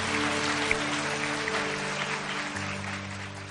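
A studio audience claps steadily and fairly loudly for a few seconds, a dense, even wash of many hands with a faint low hum beneath and no voices.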